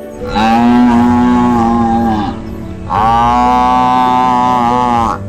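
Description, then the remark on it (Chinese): Two long, loud bellows from a water buffalo, each lasting about two seconds with a brief pause between, deep and droning with a rich, slightly wavering tone. “可是黄牛并没有回来，水牛只好大声喊叫”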